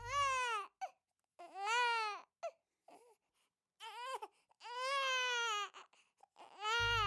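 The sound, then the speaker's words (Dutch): A baby cries in several long, wavering wails separated by short breathy pauses, loud, with no other voices. “Het mooie prinsesje was altijd aan het huilen.”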